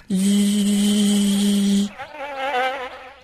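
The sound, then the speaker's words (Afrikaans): A fly buzzes loudly and steadily for a couple of seconds, then its drone turns wavering and uneven and grows fainter as it flaps its wings and flies quickly up and away, high over a tree. “Voordat Mani Mier en Driekie Dassie nog iets kan sê, spring Vincent in die lug op, klap sy vlerke op en af en vlieg vinnig hoog bo oor die boom weg van Mani en Driekie af.”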